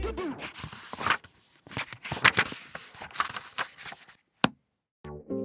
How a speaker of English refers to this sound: If you guessed that that was the sound of me leafing through and closing a book, ding, ding, ding, ding, ding, ding, ding, congratulations! That's exactly what I was doing.